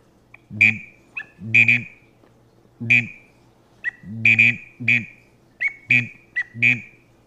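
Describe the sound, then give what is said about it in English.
A gadwall duck call imitated by a person: low, reedy croaks paired with a sharp, high added whistle, repeated in short bursts of one or two notes about a dozen times. “That little whistle that I add in there, it really sounds gray ducky to me.”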